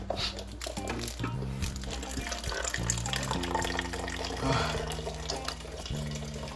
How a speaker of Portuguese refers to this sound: Vou encher o copo de água aqui. Opa, saúde.